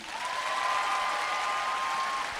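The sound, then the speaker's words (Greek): A crowd applauds steadily for a couple of seconds, welcoming a performer onto the stage, a dense, even wash of clapping, with a thin high whistling tone running through most of it. Nobody speaks. “Λοιπόν, θέλω να υποδεχτείτε, να δώσετε ένα μεγάλο χειροκρότημα και να υποδεχτείτε στη σκηνή”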